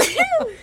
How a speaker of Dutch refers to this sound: Oh, je gaat niezen.